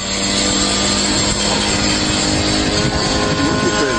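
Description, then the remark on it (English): A military drone buzzes loudly and steadily, its high-pitched motor whine holding a constant tone throughout with no breaks. “Here's a couple of Ukrainian soldiers laughing at one of our drones.”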